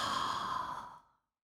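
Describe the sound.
A single long, breathy exhale during a breathing exercise, imitating the sound of the ocean, steady and airy like a soft rushing wave, held for about a second before tapering off into silence.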